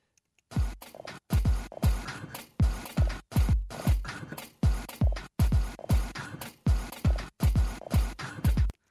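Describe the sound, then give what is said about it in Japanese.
A steady, looping 2-step style beat built in music software from photocopier paper-ejection sounds chopped up and reassembled as drums: about a dozen loud percussive bursts with deep thumpy attacks and a scratchy rush, repeating in a regular rhythm with no voices. “このビートがですねちょっと2ステップっぽいちょっとトレンド意識した感じの で作ったんですけど、えー、このドラムの代わりみたいになってるのがコピー機の紙が出てくる音それをですね細かく分解してこうビートに組み立て直したと”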